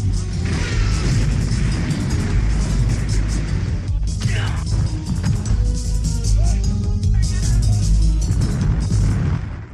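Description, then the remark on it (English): Explosions in the trailer for the film Land of Doom: a loud, dense wall of booming blasts and crashing debris with a heavy, continuous low rumble and sharp bursts throughout, overwhelming. “and more explosions.”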